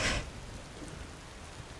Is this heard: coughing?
no